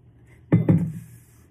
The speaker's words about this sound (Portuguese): Só tomar uma água só um pouquinho.